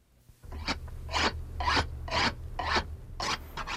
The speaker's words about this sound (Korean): 가위 갈 줄 알아야 돼요. 가위를 갈 줄 알아야 연장을 쓸 수가 있어.